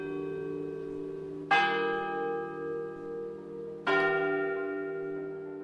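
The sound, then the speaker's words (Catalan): A large church bell, the bell of the Agermanats, tolls a death knell slowly, two heavy strikes about two seconds apart, each leaving a long, resonant hum that lingers between blows, heard alone. “Arcís, la campana dels agermanats, tocava a mort.”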